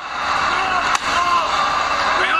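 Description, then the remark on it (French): A single sharp metal-chair shot cracks once amid the steady roar of a loud arena crowd, with voices talking throughout, as a wrestler beats Braun with a chair. “Ah bah, oh, c'est pas vrai, il est en train de tabasser Braun à coups de chaise”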